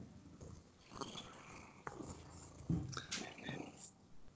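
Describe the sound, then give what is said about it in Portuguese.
A cat purrs softly, a low continuous rumble with a few scuffing sounds and faint murmuring voices in the background. “Sabe que a de gato fica fofando? Sim, isso dói tá ronronando.”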